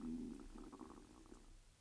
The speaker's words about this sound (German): hast du es gerade gehört? Mein Magen knurrt. Ich habe verdammt nochmal Hunger.